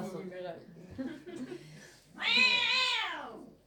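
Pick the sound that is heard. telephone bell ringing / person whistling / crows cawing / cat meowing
cat meowing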